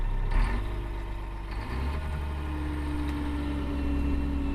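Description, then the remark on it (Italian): A heavy diesel snowcat engine rumbles loudly and steadily as it drives on the ski slopes at night, its deep drone shifting pitch slightly partway through as the vehicle keeps moving, with no voices. “Cioè scendiamo, spegniamo il motore e sentiamo il silenzio della notte, della notte sulle piste.”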